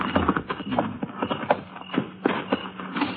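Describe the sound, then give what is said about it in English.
Horses' hooves clip-clop at an uneven walking pace as they are led to be tied to a mesquite near a cabin in the foothills below Apache Peak, late at night; the sharp knocks are moderately loud over a low, steady rumble, with no voices. “Better tie the horses to that mesquite.”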